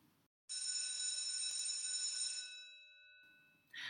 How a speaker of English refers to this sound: I think I have just heard the morning tea bell ring, which means this little chat between two sipping teachers needs to come to an end for today.